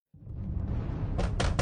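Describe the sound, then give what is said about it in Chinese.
Heavy, forceful pounding on a door by many people outside, over a dense low rumble, with several hard, sharp bangs near the end hitting in quick succession. “门外似乎来了不少人，气势汹汹的敲着门。”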